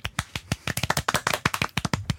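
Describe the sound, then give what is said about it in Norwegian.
A brief burst of applause from a small group, with quick, uneven hand claps overlapping in a sharp, crackling patter for about two seconds, for two participants who scored four out of six. “Så det, eh, vi tar en liten applaus.”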